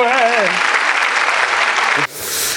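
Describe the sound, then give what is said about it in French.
Loud, dense applause for a Cahors wine fills about two seconds, with a brief voice exclamation over the opening moment, then cuts off abruptly into a short burst of hissy noise. “Allez, applaudissements pour le cahor.”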